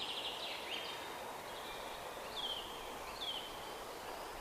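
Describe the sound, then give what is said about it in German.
Birds sing in a forest, a quick trill followed by a few scattered chirping calls, over a steady hiss of outdoor ambience and faintly rustling leaves. “Hörst du die Geräusche des Waldes, das Singen der Vögel?”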